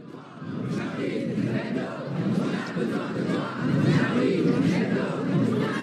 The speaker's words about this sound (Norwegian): Med taktfaste rop 'Vi er Charlie' hadde flere tusen mennesker samlet seg på Republikkplassen i Paris, like ved der tolv mennesker ble skutt og drept av tre terrorister i går formiddag. Med plakater og penner over hodet ropte de ut sitt sinne